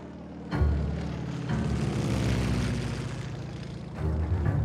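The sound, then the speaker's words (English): A lone American propeller fighter plane roars low over the town of Villalba, Sicily, in mid July 1943, a golden banner trailing behind its tail; its engine drone is loud and steady with a rough, throbbing pulse, swelling slightly as it passes; no voices. “In mid July of 1943, legend has it that a lone American fighter plane dipped low over Villalba, Sicily.”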